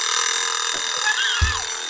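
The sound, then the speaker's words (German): A steady, loud alarm clock bell rings with dense high metallic overtones, continuous rather than pulsed, with a short low thump near the end. “Dieser Wecker hat so eine krasse Vorlaufzeit.”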